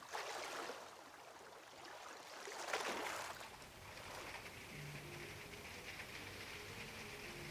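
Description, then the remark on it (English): Rain hammers steadily on a roof overhead, a dense, continuous hiss-and-patter that swells briefly, then settles, with a faint low hum creeping in toward the end. No one speaks. “Probably hear the rain hammering on the roof above my head.”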